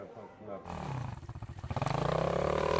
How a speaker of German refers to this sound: Motocross-Training für die Jüngeren auf dem Gelände der Nachtwölfe.